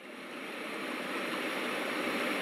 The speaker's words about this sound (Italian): hey Google, fammi ascoltare i suoni dell'acqua che scorre.